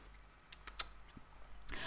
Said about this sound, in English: Yeah. I'm having a sip.